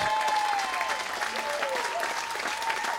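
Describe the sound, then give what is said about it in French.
A sold-out crowd applauds steadily at the last show of a tour, a dense wash of clapping that holds at a constant level for the whole three seconds, with a few faint whoops rising above it. “Merci beaucoup, à plus applaudissez-vous.”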